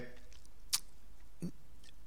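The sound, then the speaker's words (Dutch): A quick sip of water: a sharp little click, then a soft gulping swallow a moment later, with quiet around it and no talking. “Even een slokje water, want het is erg warm.”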